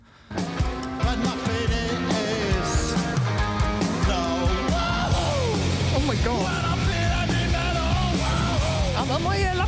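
A live rock band plays loud and dense, with distorted guitars, pounding drums and a shouted, yelling lead vocal riding over the top, crowd noise blending into the roar throughout.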